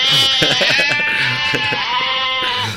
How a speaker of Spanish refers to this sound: una oveja, pero ¿qué tienes aquí? Una granja.